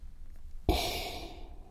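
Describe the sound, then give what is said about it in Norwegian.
A single deep, forceful sniff through the nose, with the nose pushed deep into a wine glass to smell the wine, sudden and then sustained with a hollow, airy hiss as breath is drawn in steadily for about a second. “Og så vil jeg at du stikker den helt ned i glasset og puster inn som om du har et hode for lenge under vann.”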